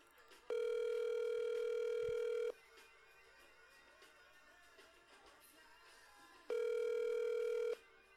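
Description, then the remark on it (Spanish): An outgoing call's ringback tone sounds twice, each a steady electronic tone lasting about two seconds with a long quiet gap between, clear and fairly loud over faint line hiss. “Vamos a proceder a hacer la llamación, vamos a ver si esta persona sí sabe de dónde viene este, la llamada.”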